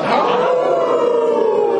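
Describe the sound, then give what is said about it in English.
Several people howl together in imitation of a wolf, a loud, sustained group howl that holds steady for nearly two seconds with no talking underneath. “I think we're about close to running this out of time, and I think I've milked the uh, howl thing a little bit to the very bitter end.”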